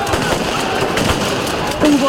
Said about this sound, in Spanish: lanzamiento de botellas y piedras y una carga policial.